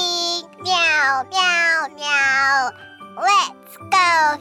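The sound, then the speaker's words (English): A voice imitates a cat while telling the story Little Kitten Goes Fishing, giving a run of drawn-out, pitch-sliding meows one after another with short gaps, fairly loud, in a playful, childlike tone. “One morning, Little Kitten followed Mother Cat to go fishing by the river. Meow, meow, meow.”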